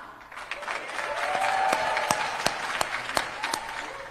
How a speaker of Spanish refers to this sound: Y la aplauden, y la aplauden, pero igual, convengado que los aplausos son, no sé, 200 personas.